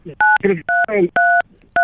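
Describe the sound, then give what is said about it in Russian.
Four short telephone keypad beeps dial in quick succession, loud, with bits of a person talking squeezed between the tones, as a caller's phone on a phone-in line seems to dial by itself. “у вас телефон, наверное, сам кому-то звонит.”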